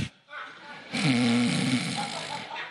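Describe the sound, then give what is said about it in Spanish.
A person imitates a snore: one long, rasping, guttural inhale lasting over a second, fairly loud, then trailing off into softer breathy noise. “A roncar.”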